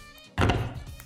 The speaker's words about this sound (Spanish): Ay, perdón por el ruido que hago con las cartas.